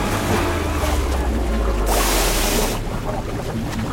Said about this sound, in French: La plupart se noient dans les vagues, Simbad échappe de justesse au flot déchaîné.